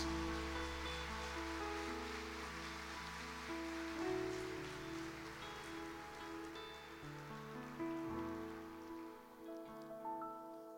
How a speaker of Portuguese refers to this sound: Gostaria que vocês pudessem saudá-lo com a paz do Senhor, com a salva de palmas.